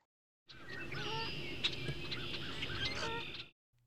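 A dense chorus of recorded bird calls: many overlapping chirps and tweets over a steady low wash of background noise, lasting about three seconds before cutting off abruptly. No one speaks.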